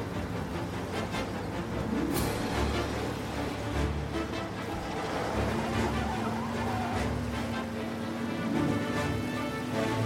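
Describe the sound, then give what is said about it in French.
An import-export truck's engine roars with a steady droning pitch while tires squeal and skid as suspects flee in it, the rumble staying loud and continuous as it speeds off. “Les suspects ont pris la fuite dans un camion d'import-export.”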